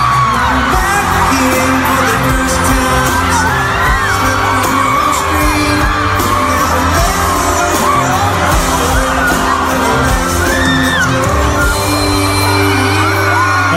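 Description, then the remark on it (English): A loud, sustained roar of a concert crowd cheering as guest singers come on stage, with whoops and yells rising over layered music and a steady bass throughout. “I mean, the crowd is going nuts.”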